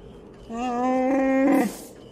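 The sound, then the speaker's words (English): A single loud, warbling Wookiee growl from Chewbacca in a played movie clip lasts just over a second, rising in pitch and ending in a rough, breathy burst. There is no speech around it. “And how you doing, Chewbacca? you still hanging around with this loser?”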